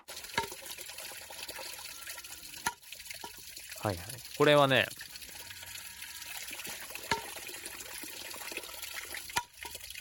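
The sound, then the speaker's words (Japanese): Steady trickling water runs throughout, punctuated by a few sharp, isolated knocks of a Japanese shishi-odoshi bamboo water fountain tipping, while a voice briefly speaks midway. “獅子おどしの音。”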